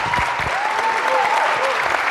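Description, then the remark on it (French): A crowd of people claps steadily after three live performances in the evening, a dense, even wash of applause filling the whole moment, with faint voices murmuring underneath. “On peut applaudir encore une fois, s'il vous plaît.”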